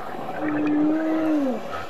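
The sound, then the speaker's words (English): A short-finned pilot whale gives a single drawn-out tonal call, holding steady before bending downward at the end, heard clearly over a soft, constant underwater hiss. “The La Gomera Hope Spot cradles Europe's largest population of short finned pilot whales.”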